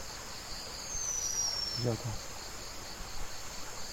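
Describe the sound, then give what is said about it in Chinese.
A single sharp, high, thin screech like a bicycle brake, a Blue Whistling Thrush call lasting about a second and dipping slightly in pitch, over a steady buzz of insects. “它是一个很尖锐的，很像脚踏车的那种刹车声音，咦，这声音，哎，这是我觉得就像。”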